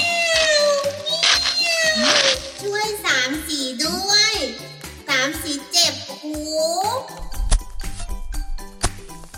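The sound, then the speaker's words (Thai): A cat named Samsi meows repeatedly, loud, drawn-out cries that slide up and down in pitch, one after another with short gaps, over a busy background of other sounds. “เอ๊ะสามสีร้องทำไมน่ะ อะไรนั้น เสียงสามสีแน่ ๆเลย ไปดูกัน”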